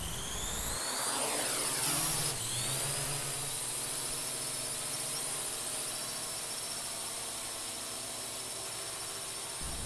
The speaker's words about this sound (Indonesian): Mesin pun mulai menyala. Baling-baling berputar. Secara perlahan, kendaraan naik dan berjarak dengan lantai atap rumah.